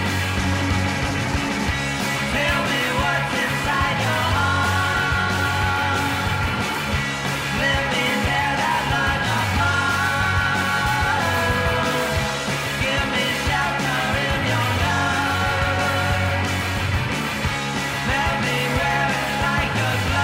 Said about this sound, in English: that is a little bit of the young Bay Area rocker